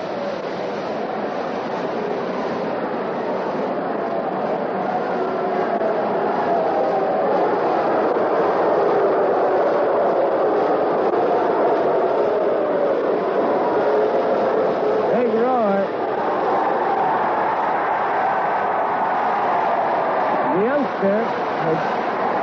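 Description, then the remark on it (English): A stadium crowd at a ball game roars steadily, reacting after a young spectator on the field had the ball taken away. It is a loud, unbroken wash of many voices that holds its level throughout, with brief higher cheers rising out of the din near the end. “And the crowd is reacting.”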